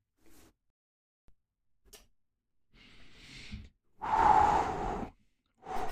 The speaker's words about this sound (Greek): Τώρα, συγγνώμη, παίρνεις βαθιές ανάσες.